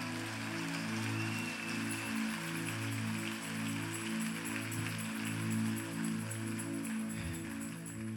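An audience applauds steadily for about eight seconds, a dense, even crackle of many hands clapping, with sustained low keyboard chords holding underneath throughout.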